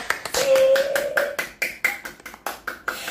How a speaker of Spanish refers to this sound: Ah, a nuestro equipo de trabajo, se convierten también como otros hijos, ¿o no? Así que otro aplauso para ellos.